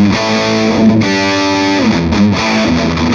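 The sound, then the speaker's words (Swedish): Heavily overdriven, distorted electric guitar chords played through an amplifier with much more overdrive than a Wizard amp ring out loud and sustained, with a gritty, saturated amp tone and a brief pause before the riff resumes. No one speaks. “Och den här har ju, har ju betydligt mer överstyrning än vad du kan få ut ur en wizard.”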